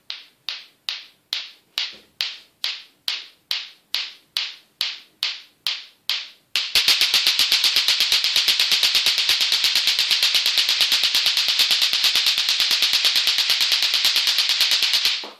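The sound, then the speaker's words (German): Klick-Klack clacker balls, a German-developed toy that appeared in Germany in 1971, knocking together, first in a steady series of about a dozen sharp, loud clacks, then speeding into a rapid, continuous clattering that runs to the end. No talking. “Ja, das sind die sogenannten Klick-Klack-Kugeln.”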